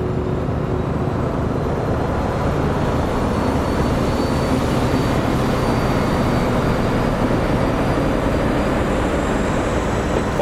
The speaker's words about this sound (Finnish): Vaunuja on 12. Tämän ikäisen ja tehoisen veturin konetilaan saa käskeä kierroksia reippaasti. Satoja tonneja terästä lipuu veturin perässä. Nopeusmittarin viisari kiipeää hitaasti yli viiden ja edelleen kohti kymmentä.